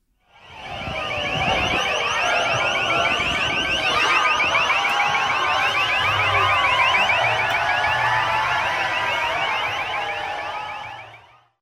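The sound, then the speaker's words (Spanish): A loud, rapidly warbling police siren wails continuously for about ten seconds over a busy, noisy street background during spring-break street disorder and clashes with police, with no voices standing out. “Miles de personas aprovechando el receso de primavera, el Spring Break, aterrizaron allí, pero el desorden callejero fue tal que hubo choques con la policía, sirenas, gritos y gases.”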